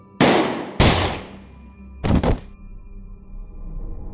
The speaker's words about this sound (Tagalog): Hanggang sa dalawang putok ng baril ang nadinig ko.